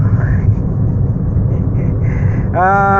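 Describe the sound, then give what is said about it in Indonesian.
Steady low engine rumble and road noise fill the interior of a moving car throughout, with a brief spoken hesitation over it and a rising tonal whine near the end. “ya lagi di mobil ya seperti biasa”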